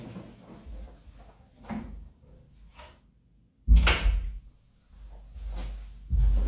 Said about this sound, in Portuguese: Vamos lá, muito boa noite. Mais uma quarta, deixa eu fechar a porta.